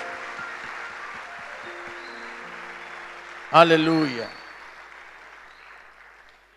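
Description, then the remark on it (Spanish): An audience applauds for Jesus in a steady, dense wash of clapping that gradually fades, while a single voice calls out loudly partway through over the dying applause. “Fuerte ese aplauso le damos a Jesús.”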